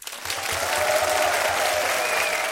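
Steady applause from a large audience at a live show in Munich, replayed, a dense wash of clapping that rises quickly and holds at an even level throughout, with faint crowd murmur underneath and no distinct voices.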